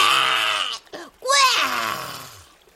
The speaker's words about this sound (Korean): 내가 어느 책에서 읽었는데 답답할 땐 소리를 지르래. 가슴에 무거운 돌이 얹혀 있는 것 같으면 고래고래 소리를 질러서 그 돌덩이를 뱉어내랬어. 이렇게 꾸에